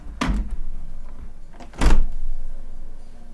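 A balcony door is eased shut in a test of how very low frequencies carry, giving a brief rattle followed by a deep, muffled bass thud about a second and a half later, with a low rumble lingering afterward.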